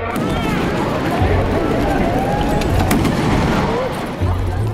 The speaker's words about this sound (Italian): Ci sono le telecamere delle tv locali e questo è l'audio della diretta. A un certo punto, uno sparo.